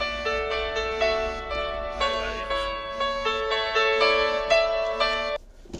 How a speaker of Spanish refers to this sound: Bueno, perdón por los pitidos.